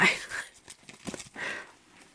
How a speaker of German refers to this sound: Warte, ich zeig dir das ganz kurz, ohne, ohne noch mehr zu rascheln. Ich versuche, das, diese Tüte ohne zu rascheln nein, vor die Kamera nein, zu halten. Du raschelst schon.